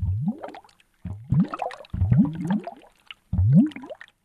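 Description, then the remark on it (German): Wet, gurgling bubbles rising and popping in liquid, in four separate bursts with short pauses between, clear with no voices. “Richtig, das sind Blasen, die blubbern.”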